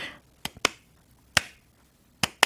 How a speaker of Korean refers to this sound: 요 리듬으로다가 박수를 치게 되더라고요.